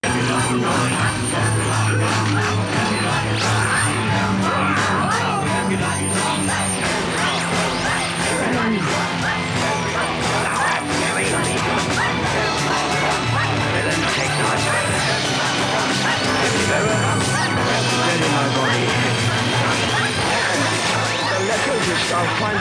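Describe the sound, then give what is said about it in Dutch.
The 2009 stereo mix of a song plays, dense and steadily loud throughout, with sustained instruments and crashing, hard-hitting percussion filling the whole range, and no one talking over it. “Dan gaan we eerst even de 2009 draaien.”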